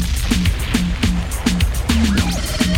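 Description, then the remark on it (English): A voice imitates radio static with a steady hiss and crackle, pulsing in a quick, regular rhythm with low throaty bursts for about three seconds. “You like my little static compression there?”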